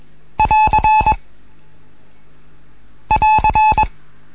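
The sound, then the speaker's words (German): A Morse code end-of-transmission signal: a loud, steady mid-pitched tone keyed in a short pattern of dots and dashes, played twice with a pause between, no voices. “Oder das Schlusszeichen”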